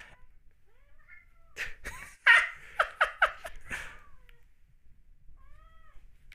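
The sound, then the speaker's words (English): Several short, insistent meows and whimpering cries from cats wanting to get into a studio come in a quick rhythmic burst, with fainter mewing before and after and a brief human laugh in the mix. “I don't know if you can hear it, but if you hear little kind of whimpers off and on in the background. My cats really want to get into the studio.”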